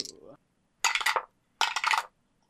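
Dice clatter across a hard surface in two separate rattling bursts, each lasting about half a second, fairly loud, after a brief vocal sound at the start; rolled for a coordination and subterfuge check in a tabletop role-playing game, coming up eight.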